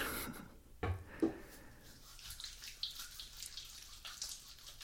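Wet sloshing and soft splashing in bathwater as hair is washed and lathered with shampoo, with scattered drips and small rustling movements. A brief laugh is heard early on.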